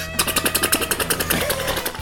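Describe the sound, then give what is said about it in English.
A voice imitates a helicopter with a rapid, steady chopping pulse of about a dozen beats, followed by a rougher, wavering whirr, all fairly loud and unaccompanied by speech. “and maybe people just think but it's also, just a helicopter.”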